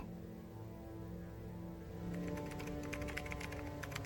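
Rapid clicking of keys on a computer keyboard starts about halfway through, steady, over a soft sustained musical drone that runs the whole time.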